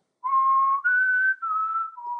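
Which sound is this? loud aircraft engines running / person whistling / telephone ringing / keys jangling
person whistling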